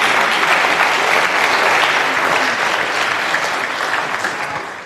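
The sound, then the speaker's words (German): An audience claps steadily, a dense, even wash of many hands that holds strong for several seconds before easing off slightly at the end. No one speaks over it. “Äh, wir haben das, äh, ja, können klatschen.”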